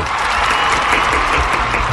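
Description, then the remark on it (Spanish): Steady, dense applause from the audience of the TV show Universo, welcoming the first candidate, Andrés Felipe Arias; a continuous wash of many hands clapping at an even loudness for about two seconds with no voices over it. “Bueno, recibamos con un aplauso al primer candidato, Andrés Felipe Arias viene representando a la preciosa región de Carimagua.”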